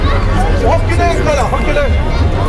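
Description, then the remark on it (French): Dense crowd hubbub at a Chinese New Year parade in La Guillotière, with many overlapping voices chattering at once over a steady low rumble. The noise is loud and continuous, with no single voice standing out. “Là, je suis en train d'agiter les bras en l'air, je suis dans la foule, comme tout le monde.”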